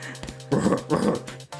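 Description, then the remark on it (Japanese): At a zoo, a teacher standing before a mandrill enclosure beats his chest and imitates an ape-like howling call at the mandrill as courtship behaviour, letting out two short, loud, throaty bursts one right after the other, with a low hum underneath. “吠え出して、なんとマンドレルに求愛行動を取り出して。”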